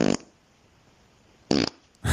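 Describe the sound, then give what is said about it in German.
Short, loud fart bursts with a brassy, buzzing tone, fart number 6 in a round of a fart-comparison game: one at the start, another after a pause, and a third cut off at the end, with near silence between them and no talking. “Furz Nummer 6 aus der dieser Runde gegen Furz Nummer 7 mhm.”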